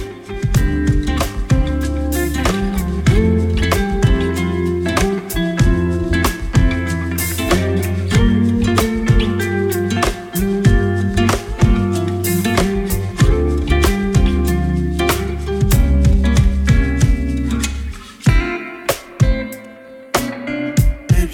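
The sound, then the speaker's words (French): An upbeat French pop song played on Radio Phoenix as its song of the day, with sung vocals over a steady, driving beat and bright instrumentation, playing loud and continuous before thinning out in the last few seconds. “La prod est soignée, le refrain efficace, ça met de bonne humeur.”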